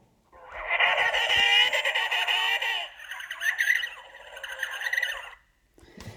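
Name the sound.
penguin calls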